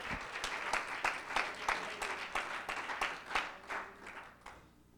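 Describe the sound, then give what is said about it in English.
An audience claps together in a steady burst of applause, a hand clap of thanksgiving to the Lord as they are seated, many hands overlapping into dense, bright crackle that holds strong for several seconds before thinning and fading out toward the end. “Give the Lord a hand clap of thanksgiving one more time as you're seated in the presence of the Lord.”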